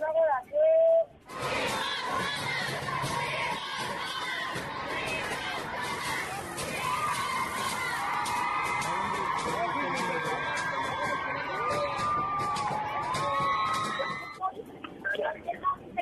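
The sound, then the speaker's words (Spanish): A large crowd of feminist groups protesting in the Zócalo of Mexico City roars and chants together in a dense, sustained wall of voices, with high cheers and whoops rising above the din, heard from within the mass of people. “Escuchar la unidad de la gente que está presente en una parte del audio que tenemos preparado.”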